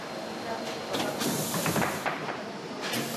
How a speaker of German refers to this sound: Die Bügelpresse erhitzt den Kleber, die Teile verbinden sich miteinander.